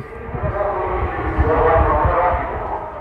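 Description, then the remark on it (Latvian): An air raid siren warning of a possible air attack holds a steady, wavering wail for several seconds over a low background rumble, heard from a hotel room at about 5 in the morning, with no voices present. “Viesnīcas numuriņā pamostos no savādas skaņas Tā kā nezinu, kā tieši skan trauksmes signāls, kas brīdina par iespējamu gaisa uzbrukumu, saģērbjos un dodos ārā.”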